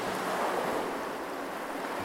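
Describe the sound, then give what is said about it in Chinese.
A steady, broad roar of floodwater surging in from all directions fills the whole stretch, loud and continuous like crashing surf, with no voices and no breaks in the rushing wash. “大水霎时从四面八方涌了过来。”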